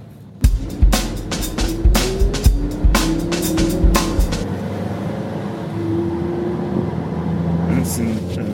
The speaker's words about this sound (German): Soundaktuator an Bord oder was ist, was hört sich so röhrend nach V8 an? V10 wahrscheinlich da hinter uns, ne? Ja, weiß ich nicht. Es ist ein, Vermutlich ein Zehnzylinder. Äh, das kann ich gar nicht so hören.